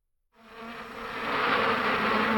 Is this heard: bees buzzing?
yes